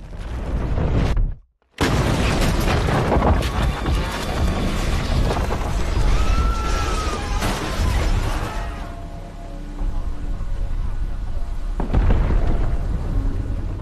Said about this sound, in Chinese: 只听到轰的一声，炸弹引爆了。大楼摇晃倾斜，正好倒向了旁边男主所在的电视台大楼。